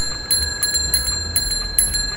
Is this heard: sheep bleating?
no